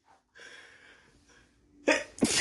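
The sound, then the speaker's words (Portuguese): A long, breathy intake of air builds up, then two sharp, explosive sneeze bursts follow in quick succession, loud, with no talking. “Meu Deus, porque eu tô espirrando tanto.”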